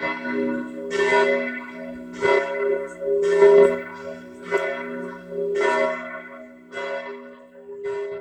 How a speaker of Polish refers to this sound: zaskoczeniem było to, że, te, że te bicie tych dzwonów potrafi trwać 10 minut w ciągu jednej sesji. E, dodam jako ciekawostkę, że nie chodzi o kościół katolicki i nie dzieje się to w Polsce.